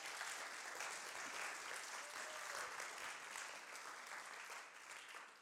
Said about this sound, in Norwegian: Hun sitter på første rad. Hun fortjener faktisk en applaus.